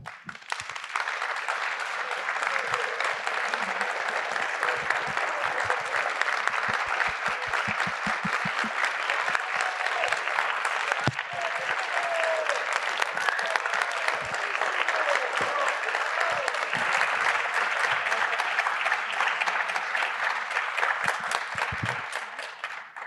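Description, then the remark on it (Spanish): A large audience at the opera applauds maestro Ramón Vargas steadily for over twenty seconds, a dense wash of many hands clapping with individual sharp claps poking through, sustained at a consistent loud level throughout. “Por favor, un gran aplauso para el maestro Ramón Vargas.”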